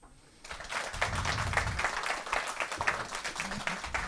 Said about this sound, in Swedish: Nu skulle jag vilja att ni ger en varm applåd till morgonens gäst, Mila Dalami.